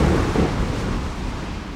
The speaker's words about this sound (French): On entend des bruits sourds comme s'il y avait un gros orage.